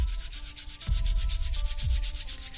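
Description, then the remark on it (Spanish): A person's hands, pressed together as in prayer, rub together briskly as part of an exercise, a steady dry swishing friction with repeated back-and-forth strokes, heard alone with no talking. “Lo que te voy a pedir es que juntes tus manos al frente tuyo como en una posición de rezo, digamos, o de oración, y comiences a frotar tus manos haciendo este efecto, lo vas a escuchar.”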